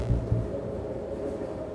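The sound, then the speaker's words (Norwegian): A train pulling into the station at Oppdal, Norway: a steady, muffled low rumble fills the short moment, opening with two quick dull thumps, with no voices. “Toget ankommer samtidig Oppdal.”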